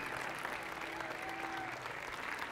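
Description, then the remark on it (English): A crowd applauds steadily for a few seconds, a dense, even wash of many hands clapping at constant loudness, with faint voices mixed into the noise, welcoming people as they walk back to their seats. “Come on, applaud them.”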